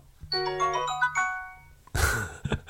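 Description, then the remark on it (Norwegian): A short, bright item-received jingle from the video game Zelda Breath of the Wild: a quick cluster of chiming, bell-like notes ringing out for about a second, followed by a brief burst of noisy rustling. “Item received fra Selda Breath of the Wild.”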